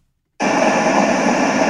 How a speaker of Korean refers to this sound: 이 소리가 들린다는 거는 지금 제가 뉴욕시티 스트릿 사운드예요. 이게. 아. 근데 지금 우리가 이렇게 대화를 나누고 있잖아요. 그러면 이 소리가 뉴욕 시티에서 마치 이루어지는 것처럼 느낄 거예요.